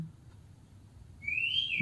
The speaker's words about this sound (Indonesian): Kok ada suara burung ya malam-malam gini ya? eh, burung bapak gue bangun nih.